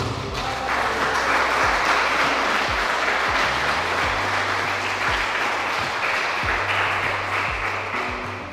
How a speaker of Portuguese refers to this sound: se entendeu, pode aplaudir glorificar o Senhor.